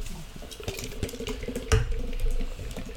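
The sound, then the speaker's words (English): A Guinness nitro stout being poured into a glass, a steady gurgling, fizzing stream of liquid with a brief clunk partway through, no voices. “Oh, we also get to we also get to show off Ooh. our terrible Guinness pour oh. skills.”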